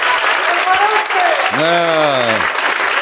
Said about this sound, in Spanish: Sé que este aplauso está un poco inducido, pero también que lleváis dentro el gen de la admiración, ¿no?